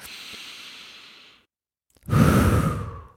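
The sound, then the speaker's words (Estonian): A long, airy inhale through the nose is followed by a brief pause and then a fuller, louder exhale, released in a relaxed sigh. “samal ajal, kui ma hingan niimoodi sisse ja kohe mõnusalt niimoodi välja, ma tunnen, kuidas see koorem lausa minu pealt kukub”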